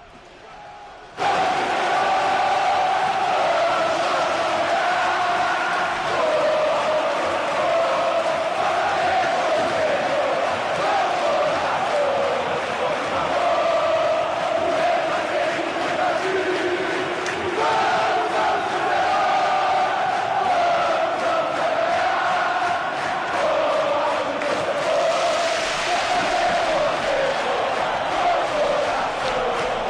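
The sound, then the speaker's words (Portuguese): A large crowd of Cruzeiro football fans chants in unison "vamos, vamos, Cruzeiro", a loud, sustained sung chant with steady rhythm and shifting melody. Dense crowd noise fills the whole stretch after a brief quiet start. “O Som das Torcidas #135 Cruzeiro”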